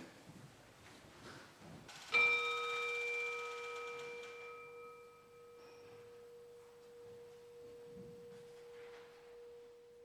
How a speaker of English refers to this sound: And while we do that, I think the singing bowl is going to sound.